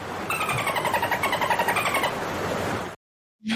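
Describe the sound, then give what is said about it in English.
Rapid, pulsing dolphin chatter, a fast stuttering run of squeaky clicks and chirps lasting about two and a half seconds, fairly loud and alone, then a cut to silence. “We're not advocating for uh, fishing for dolphins, by the way, just because we've got a flipper noise in”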